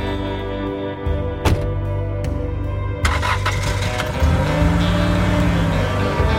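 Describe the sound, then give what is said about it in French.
A Chevrolet Suburban's engine turns over and settles into a steady idle, then revs up as it pulls away along a path between two rows of trees, the low rumble rising in pitch and growing louder. “Alex Murdoch monte alors dans sa voiture. Son Chevrolet Suburban emprunte un chemin tracé entre deux rangées d'arbres.”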